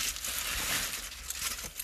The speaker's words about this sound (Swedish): enda man kommer höra i inspelningen är folieprassel. Mm. Fucking fyra lager.